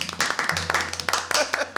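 A quick round of close hand clapping, a dense flurry of sharp claps over a low steady hum, with a faint voice murmuring underneath.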